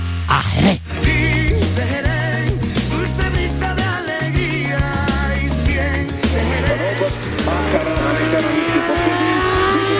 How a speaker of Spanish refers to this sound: El motor de esta BMW 1200 solo va a parar ya, ya, ya, ya, ya, en cuanto llegue